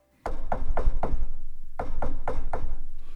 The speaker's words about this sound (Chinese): 门口传来了阵阵的敲门声。河马医生拖着脚步去开门。